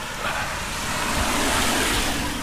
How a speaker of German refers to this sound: Und dann warten wir noch ganz kurz ab, bis das Auto hier vorbeifährt